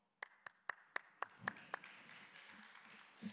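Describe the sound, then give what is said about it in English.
A brief burst of audience clapping: about seven sharp, evenly spaced claps that quickly fade into a soft, scattered patter and low murmur, with no talking over them. “Yeah, we don't need to clap.”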